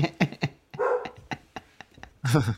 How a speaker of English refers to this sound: tell that damn dog, shut up.